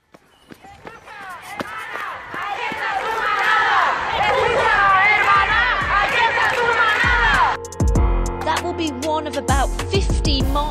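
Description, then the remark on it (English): A large crowd of thousands protesting in the streets of Spain against a ruling that acquitted five men of raping a woman during a bull running festival, many voices shouting and chanting together, swelling louder over several seconds, with sharp knocks and footsteps scattered through the din before it breaks into more scattered clatter. “Thousands are protesting in the streets of Spain following a ruling that acquitted five men of raping a woman during a bull running festival.”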